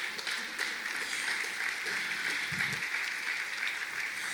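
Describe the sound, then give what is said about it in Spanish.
An audience claps steadily for several seconds as applause to God, a dense, continuous wash of many hands applauding at an even level with no voices rising above it. “¿Por qué das un aplauso a Dios?”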